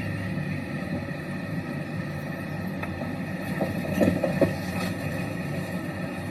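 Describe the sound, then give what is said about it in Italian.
A steady, low roar of street traffic full of yellow taxis and roaring, speeding SUVs, with some horns, engines rumbling continuously, swelling briefly louder toward the middle before settling back into the same constant drone, with no voices. “Siamo in mezzo praticamente al traffico pieno di taxi gialli, freni che stridono, persone che parlano, SUV che corrono e sfrecciano rombando ci sono anche i poliziotti ovviamente, non manca nulla, qualche clacson,”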